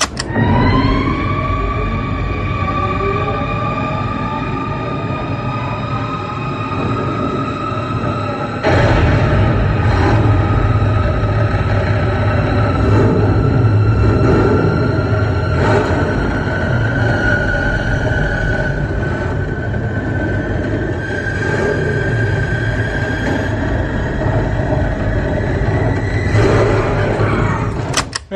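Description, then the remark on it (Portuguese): A Batmobile engine in a film's audio roars continuously, its whining pitch climbing steadily as it revs, then surging louder and rougher partway through and staying heavy with rumbling bursts until the end. No one speaks. “agora o demônio que me acorda ele é o Batmóvel mais intimidador que a gente já viu.”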